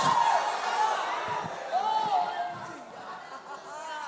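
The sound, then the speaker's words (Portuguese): An audience shouts for joy: a dense, steady wash of many voices cheering at once, with high, arching whoops and cries rising and falling above the crowd noise throughout. “Quantos podem dar um grito de júbilo aí, irmão? Dá um grito de júbilo aí.”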